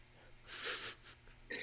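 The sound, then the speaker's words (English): A voice imitates a sharp gasp, someone's initial response to being contacted by a developer: a single loud, hissing intake of breath lasting about half a second, followed by a short second breath and then the start of talking. “initial response was a big gasp.”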